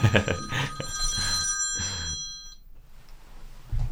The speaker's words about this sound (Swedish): Nu ringer det någonstans. Ska vi nej, det är, nej, det är inga problem. Eller ja, stäng av ljudet.